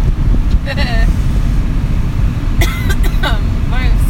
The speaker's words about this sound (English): the sport for today is coughing. Coughing, yeah.